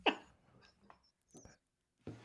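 A short fart right into the microphone, a sharp burst followed by a few quieter sputters and another brief blast near the end, with no talking.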